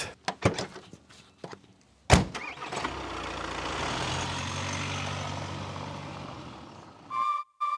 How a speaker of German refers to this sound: Wir stehen direkt unter einer befahrenen Brücke. Äh, das habt ihr jetzt so die ganze Zeit auch als Grundrauschen wahrscheinlich mit im Hintergrund.